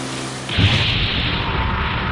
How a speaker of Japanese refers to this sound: その瞬間、ビッグダディの乗る高速船がモーニング母乳号に突撃し燃料に引火、大爆発を起こしたのであった。